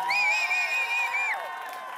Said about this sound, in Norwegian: Få en stor applaus til for den fantastiske